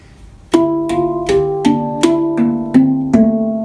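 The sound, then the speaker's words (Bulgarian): A handpan rings out in eight evenly spaced, softly struck notes, each with a warm, bell-like tone that lingers and overlaps with the next, played clear with no voices. “Ето случая този звучи така.”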